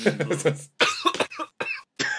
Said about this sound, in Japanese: むせとるやん。喋りすぎて。